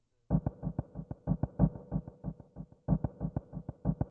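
A trembling, fluttering percussion pattern in film music, rapid low thuds in uneven bursts, steady and fairly loud, with a layered bass giving a humming, throbbing undertone and no voices.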